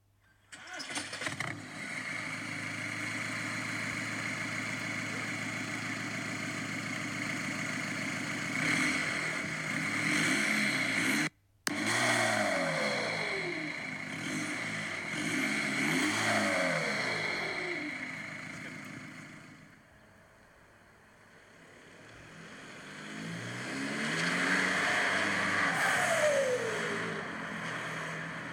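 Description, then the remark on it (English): A loud, raw straight-piped diesel car engine idles with a rough rumble, then revs up repeatedly, its pitch sweeping up and falling back several times before settling and revving once more near the end. “But uh, I'll play this little clip here and you can hear how it sounded after I got it straight piped.”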